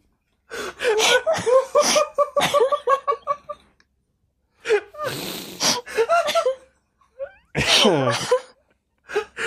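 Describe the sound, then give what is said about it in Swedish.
A person imitates a cat with a run of exaggerated, rapid meows, then drawn-out yowls and a sharp wailing meow, broken by brief pauses and breathy sounds. “nu kommer den jävla katten igen.”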